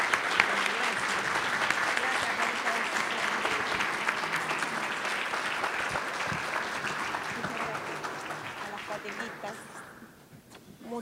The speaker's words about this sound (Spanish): Así que yo me pondría de pie, empezaría a aplaudir a estos hermanos y a darle toda la gloria y toda la alabanza al Señor.